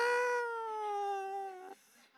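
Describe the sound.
A voice imitates the creak of a door being opened with one drawn-out, slowly falling tone, held about a second and a half and clear against silence, then cut off sharply.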